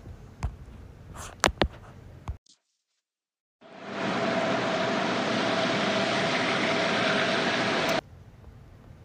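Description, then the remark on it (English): A steady, loud whooshing rush of air blows continuously for several seconds after a brief silence from a giant lint trap exhaust grate, recorded through AirPods, with a faint hum underneath and a few sharp knocks beforehand. “GIANT LENT TRAP NOISE”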